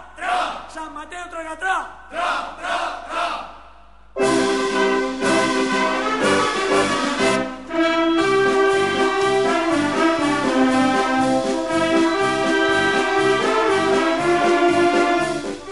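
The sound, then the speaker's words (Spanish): A crowd of voices chants the San Mateo festival anthem in short rhythmic bursts, then loud full instrumental backing kicks in and the singing continues over a steady, driving beat. “Bueno, y lo que están escuchando es el himno de San Mateo”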